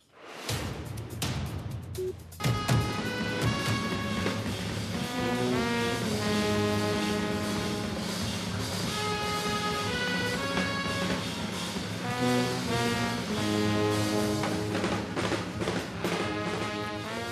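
A 14-member jazz orchestra of Scandinavian musicians, led by a Norwegian jazz musician, plays steadily at full volume, with rich horn harmonies and a dense, sustained ensemble sound after a brief rough opening. No one speaks.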